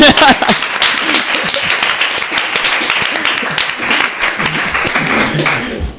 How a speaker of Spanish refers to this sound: Ah, Eso es aplauso también.